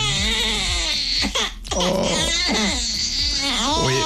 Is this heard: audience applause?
no